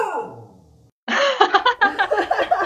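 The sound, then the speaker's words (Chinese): A pet dog barks wildly in a rapid, high-pitched string of yaps after a brief pause, following a falling, whining tone at the start. “我的狗突然在狂叫，刚才。”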